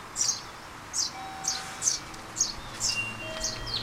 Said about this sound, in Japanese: 軒下にスズメの巣がありますねめっちゃヒナの声がする